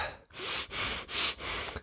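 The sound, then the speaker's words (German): A person imitates a teacher's heavy huffing breath: four loud, breathy exhalations in a steady rhythm, each a rough puff of air, with no talking. “Der schnauft immer so, hä? um ein bisschen Stimmung zu machen.”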